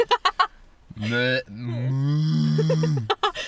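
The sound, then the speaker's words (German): A person does a long, drawn-out imitation of a cow mooing, loud, with a couple of brief bursts of speech before and after. “Wie klingen deine Kühe?”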